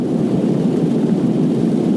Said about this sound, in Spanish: caray, está lloviendo de caray. O sea, se decía que no llovía en Pontevedra, pero cuidado, cuidado, menudo viernes nos espera lluvia.